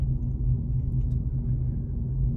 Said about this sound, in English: We're in the car